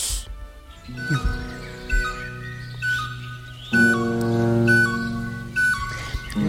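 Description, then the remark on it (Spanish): A flute imitates birds on a record, playing bright, bird-like melodic phrases over soft recorded birdsong in the background, with low sustained accompaniment underneath; the music comes in two swelling passages at a moderate, steady volume. “De fondo le han puesto pajarito, ¿eh? Pero la flautita... Ayuda, Está, tocando, está imitando.”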